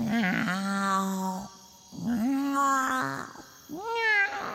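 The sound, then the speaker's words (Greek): A cat meows three times, long drawn-out, wavering calls with short pauses between them, the last one rising and a little shorter. No one speaks. “Γάτα είναι ο βασιλιάς ύπνος.”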